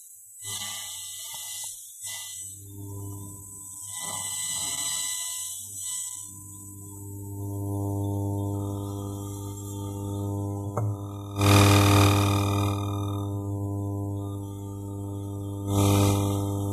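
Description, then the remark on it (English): Electromagnetic interference from a phone and a laptop, picked up by a sensor brought close to the laptop: a steady electronic hum with layered buzzing tones that shift, then two loud bursts of harsh static near the end. No voices. “Yeah, but now I'm going to bring the sensor like close to the laptop. Then you'll hear some certain noises.”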